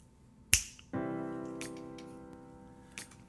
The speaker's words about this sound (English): Let me see if it, let me see if I've got the Fonzie touch. I'm gonna snap my fingers.